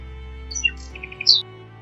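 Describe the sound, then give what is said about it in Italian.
Quick, high swallow twittering as it passes overhead: a few thin chirps followed by a short run of rapid tweets and a brighter final call, fairly clear over a low steady hum, with no talking. “si sentì in quel momento sopra di lei. Mignolina guardò in alto e vide la rondinella che passava proprio di lì”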